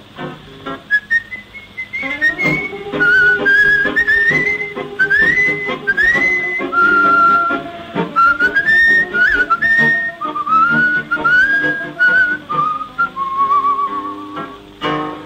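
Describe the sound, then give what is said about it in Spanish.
A man whistles a flowing, melancholy tango melody, clear and sustained for the whole stretch with sliding notes, over a steady instrumental accompaniment underneath. “un reo meditabundo va silbando esta canción.”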